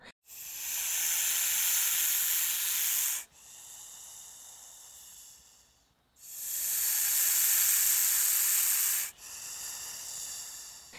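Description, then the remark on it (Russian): A snake hisses loudly twice, each long breathy hiss lasting about three seconds and trailing into a softer, fainter hiss before a short pause. No voices are present. “Но вообще хис — это глагол, который употребляется про змей, snakes, hiss”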